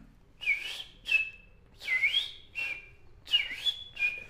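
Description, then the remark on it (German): A person whistles an imitation of a three-waved golden parakeet's chirping: six short, bright, swooping whistled calls in an irregular rhythm, fairly loud, with no talking. “Und ich äh, äh, äh zwitschere jetzt den dreiwelligen Goldsittich vor.”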